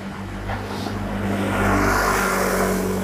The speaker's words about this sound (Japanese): たまにね、こんな感じで大きな音のバイクが通りますよね。という感じなんですけど、車の抜け道とかにもね、当たってちょっとご容赦ください。